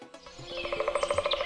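A bird chirps in a quick, steady run of bright repeated notes, clear, with no one speaking.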